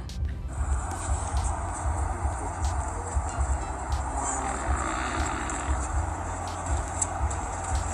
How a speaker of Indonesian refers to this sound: when a, uh, when an elephant farts elephant the farts are really big kayak gimana kentut gajah kayak gini ya